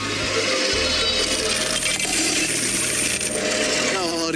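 Dense metallic jingling and clinking of many coins shaken together in well-filled money bags holding the previous day's earnings at a kermis (fair), a continuous loud rattle with bright high chinks throughout.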